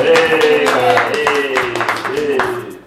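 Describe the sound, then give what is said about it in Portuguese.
A group claps steadily in a quick, repeated rhythm to welcome a guest while loud voices and cheering carry over the top throughout. “Salve de palmas, de palmas.”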